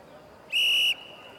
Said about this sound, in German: Es geht hin und her, bis der Schiri die Halbzeit pfeift